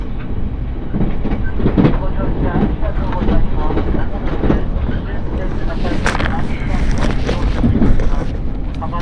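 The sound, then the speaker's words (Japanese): The Relay Kamome No. 48 train rolls steadily along the rails toward its terminus at Hakata with a continuous low rumble and faint rhythmic clatter, the noise loud and unbroken throughout, with a brighter hiss swelling toward the end. “耳で楽しむ鉄道旅”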